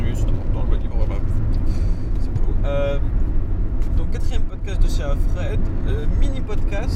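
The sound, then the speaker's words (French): Steady, loud low-frequency rumble inside the speaker's car during a journey, continuous road and engine drone throughout, with a voice speaking intermittently over it. “je suis toujours dans ma voiture, je suis toujours dans mon trajet.”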